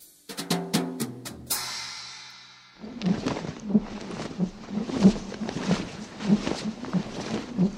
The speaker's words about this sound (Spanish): Así suena o sonaría un pterodáctilo volando. Bueno, así suena o sonaría el dinosaurio volador según los efectos especiales de las películas de Hollywood que te puedes descargar gratis en Internet.